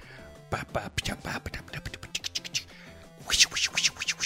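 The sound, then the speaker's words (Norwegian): A short drum solo played with brushes: quick swishing strokes and soft taps in a loose, irregular rhythm, fairly loud, building to a denser flurry near the end. “Du spiller med de der vispene?”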